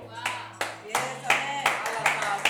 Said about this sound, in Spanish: Dale un fuerte aplauso.